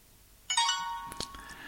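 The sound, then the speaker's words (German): A short smartphone message notification tone chimes once, bright and tonal, as a reply arrives giving the sender's current coordinates, with a few faint clicks or taps after it. “So, da ist jetzt die Antwort gekommen und er gibt mir also jetzt die Koordinaten an, wo er sich im Moment befindet.”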